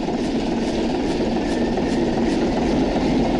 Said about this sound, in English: Just as an example, um, I still have my old computer right here next to me. Let me turn it on for you so you can so you can really hear what I was working with here. Hold on. You gotta give her a little elbow grease.